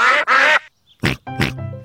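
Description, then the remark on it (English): Ducks quack loudly, two quick quacks followed by a short pause and then two more raspy, drawn-out quacks, with no talking. “Say goodbye to the ducks. Bye bye, ducks.”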